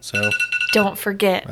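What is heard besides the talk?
phone alarm ringing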